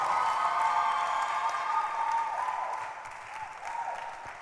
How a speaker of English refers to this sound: Your hand clap is not good at all.